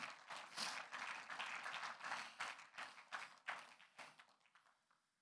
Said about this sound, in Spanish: Un aplauso al Señor.